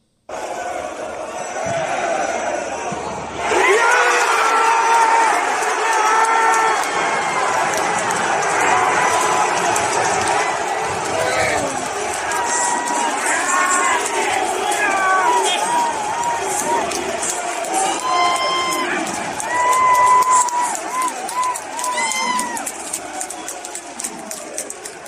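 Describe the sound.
A stadium crowd erupts into loud, sustained cheering after the winning goal, following a brief quieter start, with shouting voices rising above the roar for about twenty seconds.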